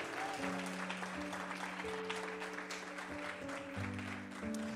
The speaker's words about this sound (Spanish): ¿Alguien lo cree? Alguien que le dé un aplauso, pero alguien que lo crea.